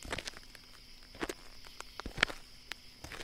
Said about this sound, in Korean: 조용히 울려 퍼지는 내 발소리와 바람 소리가 더 스산한 분위기를 만들었고, 한 걸음, 한 걸음 움직일 때마다 공기가 차갑게 가라앉는 것 같았다.